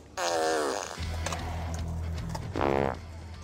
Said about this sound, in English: DeAndre Jordan, we're at Venice Skate Park, and I'm about to simply just fart on people.